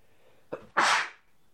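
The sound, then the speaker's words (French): A single sneeze: a short sharp intake of breath, then a loud, explosive burst that trails off after about half a second. No one speaks. “J'ai d'éternuer ma daronne là, mon gars.”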